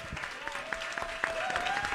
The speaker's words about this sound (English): Uh, thanks to our friends of the Twin Cities Film Fest. Let's give them a round of applause for